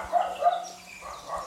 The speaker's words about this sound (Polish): jak słychać, naprawdę jesteśmy w Sokołowsku. Jakieś psy tu biegają, tak?